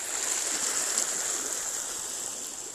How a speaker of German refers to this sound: Du hörst im Hintergrund das Wasser.